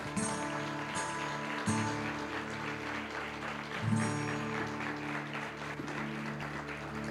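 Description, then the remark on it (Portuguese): A church audience applauds Jesus together at the end of a service, a steady, dense wash of clapping, with a sustained organ-like tone humming underneath throughout. “Aplauda Jesus, igreja.”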